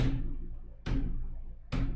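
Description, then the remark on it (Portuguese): Three evenly spaced hand strikes on a drum, with the hand covering the two central front screws, each giving a deep, booming low tone that rings on until the next hit. Fairly loud, with no talking. “Tem, então tem dois parafusos centrais que eu tampo isso. Pra ter um som grave, tá vendo?”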